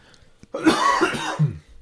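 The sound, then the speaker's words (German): An abrupt coughing fit of a few rough, breathy bursts, like someone choking slightly after swallowing wrong, with no talking around it. “Ich musste hüsteln, gerade alle verschlöckert.”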